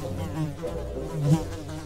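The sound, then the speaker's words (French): Several large flies buzz around a seated figure in a steady, droning hum that wavers in pitch as they circle, swelling briefly louder once before settling back, with no voices present. “Il était avachi sur son trône, comme un gros crapaud visqueux, et de grosses mouches bourdonnaient autour de lui.”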